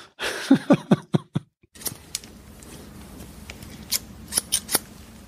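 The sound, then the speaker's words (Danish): Scissors snip through a man's hair in a barber's chair, a quick run of about six crisp cuts, then a quiet pause over low hum before a few more snips near the end. “bag saksen, trimmeren og hårdtøren stod”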